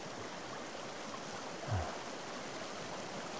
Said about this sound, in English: the water rushes below.